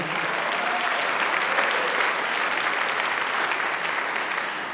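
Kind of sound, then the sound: crowd, audience clapping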